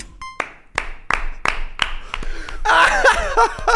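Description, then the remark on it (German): Scattered applause for a campaign-style piece (Wahlkampf case): a handful of sharp, evenly spaced claps, then a louder burst of laughter and lively voices mixing in over the final second. “Der, der, Applaus ist jetzt noch nicht inhaltlich, Nein, sondern der Applaus ist für den für Case, den Case ja.”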